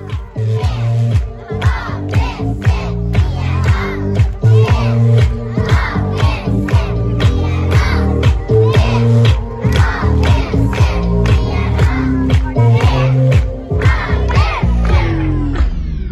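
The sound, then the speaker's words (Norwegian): A recorded school stage performance in front of the whole school: many voices shout and chant loudly in steady rhythmic bursts, dense and unbroken for about sixteen seconds before easing slightly at the end. “Så jeg tror jeg har litt på på tape her fra, fra framføringen, og da var det jo foran hele skolen.”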